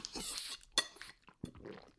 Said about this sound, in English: Jesus Christ. I did too much there. I was trying to make funny slurping sounds and instead I just uh, went down the wrong path.